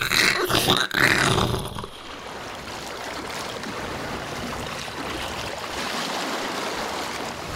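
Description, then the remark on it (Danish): A small fishing boat that can no longer be steered runs aground in waves: a loud, rough burst of crashing water and impact in the first couple of seconds, then a steady rush of surf and churning waves, with no voices. “Men de kunne ikke længere styre båden, og efter ikke super lang tid, så stødte fiskekutteren på grund”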